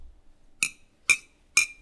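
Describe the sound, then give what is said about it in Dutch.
Three bright glass clinks in a toast with Calisse Stout beer from Hoop, spaced evenly about half a second apart, each ringing briefly with a sharp high tone, clear against a quiet background. “Uh, proost.”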